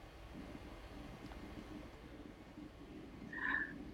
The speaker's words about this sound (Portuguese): Estou vendo que você está de blusa e está ventando hoje.